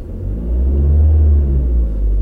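A car engine revs, a loud, deep rumble that swells and holds steady for a couple of seconds, with no voices over it.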